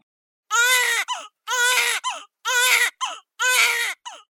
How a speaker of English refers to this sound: All right, the sound of that baby crying means it's time for this week's segment of Birth It Up Babies.